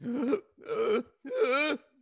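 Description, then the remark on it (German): A voice imitates hyperventilation: three loud, strained, voiced gasping inhales in quick succession, with no talking. “Das, sind so, das hört man dann so richtig, die atmen viel zu stark ein.”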